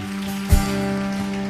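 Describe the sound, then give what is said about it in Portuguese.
An audience applauds the name of Jesus at a church service, a dense, steady crackle of many hands clapping over a constant low electrical hum, with one brief thump early on. “Vamos aplaudir ao nome dele.”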